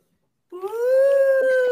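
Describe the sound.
After a brief silence, a voice imitates an ambulance siren with one loud, sustained, high wail that rises slightly and then holds steady for over a second.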